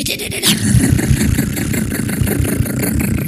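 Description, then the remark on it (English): A voice imitates a clunky old diesel truck engine, a rough, rapid low chugging that rattles steadily and fairly loudly for a few seconds, with no words spoken. “Not like a just a clunky old diesel truck that goes.”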